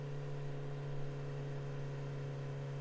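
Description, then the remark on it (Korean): A motorcycle engine, restarted by a rider at Yeongdeok, South Korea, during a long ride, runs at a steady, even idle. It is a continuous low hum with no revving or speech, holding the same level for the whole few seconds. “다시 시동을 걸어 영덕쯤에 왔을 때 컵라면에 몇만 건져 먹고 마음이 급해 다시 시동을 켠다.”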